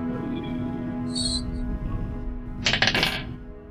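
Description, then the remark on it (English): Dice rolled for a history check clatter across a hard tabletop in a quick burst of sharp clicks lasting under a second, with a brief bright clink just before and a steady low hum underneath. “Um, that's the wrong dice.”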